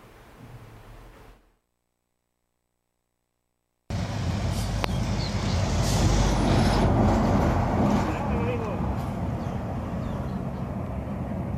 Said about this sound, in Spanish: Vea lo que pasó en un retén donde un autobús le hicieron la parada, se escapa y vean cómo actúan los elementos de la Guardia Nacional.